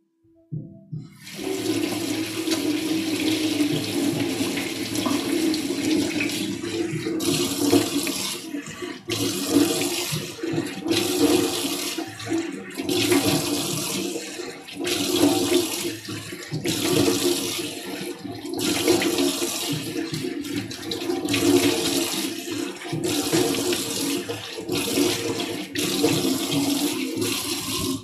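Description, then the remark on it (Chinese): Steady rushing water runs from a tap at a home kitchen sink for the whole stretch, broken by irregular splashes and brief gurgling shifts as hands scoop and splash water onto a face. No one speaks. “同学说今天动静好大，对，因为今天 一天没有洗脸，所以要洗干净一点。”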